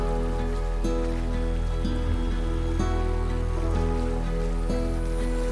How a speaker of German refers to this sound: Du kommst an einen klaren Bach der durch den Wald fließt. Das plätschernde Wasser erinnert dich an die Flüsse des Lebens, die immer weiter fließen, ohne Unterbrechung.